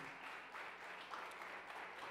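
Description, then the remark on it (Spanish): An audience applauds, a dense, steady wash of many hands clapping that holds at an even level for about two seconds with no voices over it. “Dele otro, otro aplauso fuerte.”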